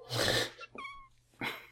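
A 13-week-old female kitten gives one short, thin mew, framed by breathy, rustling bursts of noise just before and after it. No one speaks.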